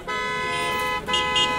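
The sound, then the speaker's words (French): Several car horns blare at a crossroads in a loud, sustained honk that briefly dips and then resumes as a second overlapping blast, with no voices. “Un concours de klaxons se fait entendre proche du carrefour vers lequel je me dirige.”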